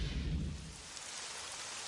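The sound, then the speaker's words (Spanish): A low rumble of thunder rolls through at the start and fades within a second, over a steady, even hiss of rain on a rainy afternoon that continues alone. No voices are present. “tarde de lluvia.”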